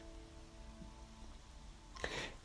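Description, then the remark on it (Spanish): Soft, steady rain falls outdoors in an open field in the countryside, a continuous faint hiss of drops with a brief louder splash of noise near the end and no voices. “En este campo, en medio de la naturaleza, en medio de la lluvia.”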